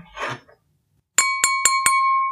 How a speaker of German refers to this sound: Jetzt musst du erstmal das Sektglas läuten.